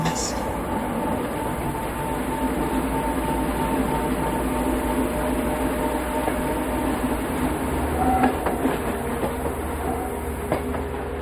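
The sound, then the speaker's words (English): A train rolls steadily along its rails as it moves out of a city into a residential area, a constant rumble with a dense low roar and occasional faint rattles and clacks, growing slightly busier near the end. “it looks like the train is moving from like in a city to like outside of it.”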